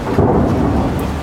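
A steady, heavy wash of rain with a deep rumble of thunder rolling underneath, filling the whole short stretch at a fairly loud, constant level, with no voices.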